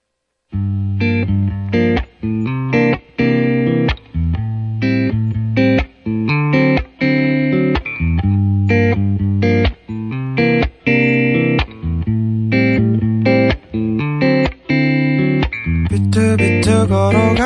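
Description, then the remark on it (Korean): A listener-requested song plays on the radio: a loud distorted electric guitar plays a stop-start riff, thick chords crashing in bursts separated by brief silences, with no singing. “노래 들어볼게요. 최현님이 신청하신 곡이에요.”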